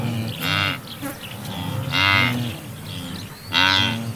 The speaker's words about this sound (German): Und das tiefere, entspanntere Grunzen, das sind die Gnus.